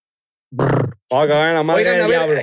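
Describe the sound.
A rapper-style rolled-lip "brr" ad-lib vocal trill, each person doing their best brr into the microphone: a short buzzy burst, a brief pause, then a longer, loud, wavering trill delivered close to the microphone.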